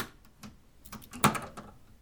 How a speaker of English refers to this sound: I jumped a little as it slams behind me with the loud sound of an old door creaking and the heavy click of a lock.